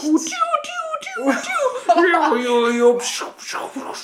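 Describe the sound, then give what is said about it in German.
A voice mimics a dial-up modem connecting to the internet: a few seconds of warbling, gliding tones and hissy screeches, fairly loud, with a hint of chuckling mixed in. “sondern wenn sich das Internet verbunden nee. hat.”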